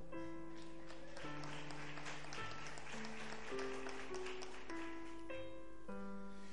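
An audience applauds steadily for several seconds, a dense crackling clatter blended with sustained keyboard chords that shift pitch every second or so, holding an even level throughout.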